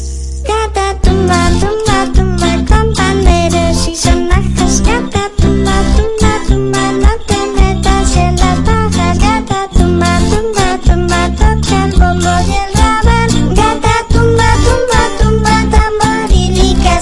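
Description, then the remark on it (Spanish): A lively Christmas carol (villancico) plays loud and continuous, with a steady, bouncy beat and bright full-band instrumentation running throughout. “Pero, bueno, lo vamos a escuchar igualmente, pues para aprender la música y el ritmo.”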